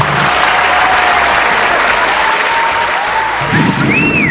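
A steady, loud round of applause fills the whole stretch, dense overlapping clapping with faint whistles rising above it and no speech.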